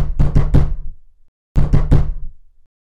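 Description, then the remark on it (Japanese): Knocking on the small wooden gate of the Hattori house in the dark of night: two bursts of firm, hollow raps, about three or four strikes each with a brief pause between, loud and unaccompanied by voices. “服部の小さな門を叩き始めた”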